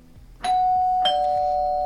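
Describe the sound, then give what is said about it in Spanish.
A two-note doorbell chime at an apartment door rings out clearly on a very cold day, a bright ding followed by a dong whose tone lingers and slowly fades, with no voices. “Hasta que, bueno, después de dar muchas vueltas, encuentro el apartamento que, que, estaba encontrando y le toco timbre.”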